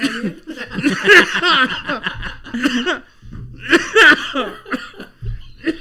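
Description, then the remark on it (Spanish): A fit of harsh, repeated coughing comes in two bursts, loud, tangled with breathy laughter and strained throat noises between the spasms. “estoy tratando de no reírme para que no me tos otra vez.”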